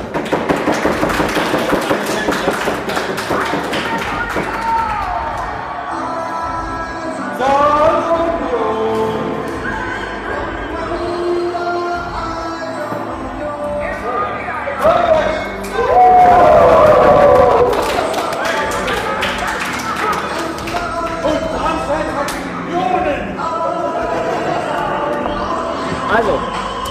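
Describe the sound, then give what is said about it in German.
A live audience claps and cheers loudly and steadily for the whole stretch, with high whoops and shouts rising out of the crowd noise near the middle and end. “Wie fanden oh wir die Folge? Klatschen? Ja.”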